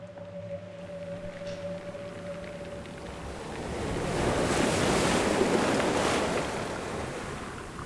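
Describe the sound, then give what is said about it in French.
Ocean waves wash in steadily under a blustery wind, the surf swelling into a louder rush midway before easing back; a faint low tone hums early on. No one speaks. “Le bruit de la liberté est pour moi le bruit des vagues ou du vent, un bruit doux et agréable, un bruit de la nature”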